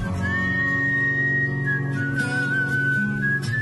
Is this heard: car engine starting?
no